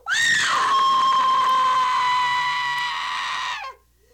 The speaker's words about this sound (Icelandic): Það tók Lissi nokkra sekundra átta sig, áður en hún öskraði með öllum lífs- og sálakröftum úr skelvingu.